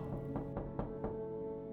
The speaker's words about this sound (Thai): ในตอนกลางดึก ผมได้ยินเสียงของใครไม่รู้ มาเคาะเรียกที่ทางหลังบ้าน